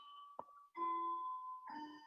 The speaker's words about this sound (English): can you hear that bell that just went off? Yeah, I love it for okay. a music interview. it's this clock in this house that that I'm dog sitting at. It goes off like more than once an hour, so I don't know what's up.